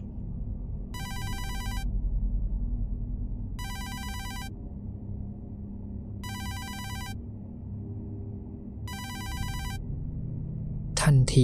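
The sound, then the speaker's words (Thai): A mobile phone rings four times, each short bright electronic trill evenly spaced, over a steady low background rumble, with a sudden noisy burst at the very end. “เสียงมือถือของผมก็ดังขึ้นมา พร้อมกับร่างกายของผมที่สะดุ้งลุกขึ้นมานั่งบนเตียง”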